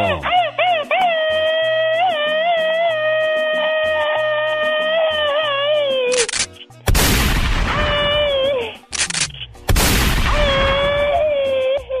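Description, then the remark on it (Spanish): A long, high, wavering vocal cry gives way to two loud, rasping bursts where a voice mimics rapid machine gun fire, each rattle lasting a couple of seconds with a brief pause between. “Échales un grito ametralladora, chamaco.”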